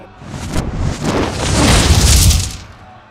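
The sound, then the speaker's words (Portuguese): A fireball explosion from a fireball spell cast at a winged creature in a tabletop role-playing game: a roaring, rumbling burst that swells over about two seconds with a deep low-end boom, then quickly dies away. No voices are heard. “A bola de fogo aparece na frente dela, mas você vê a criatura fechando as asas e atravessando ela, tipo, quase não sendo queimada”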